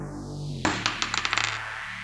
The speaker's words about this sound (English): Alright, the dice are ready. Let's roll to see if Raffenfell enjoys any stat increases for strength.